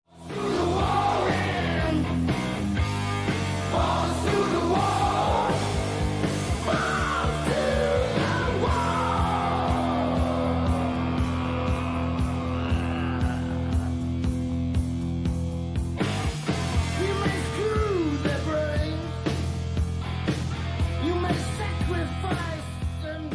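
A heavy metal song plays loud and steady, with a driving guitar riff over pounding drums and a gritty, shouted vocal line, sustained for the whole stretch without any talking.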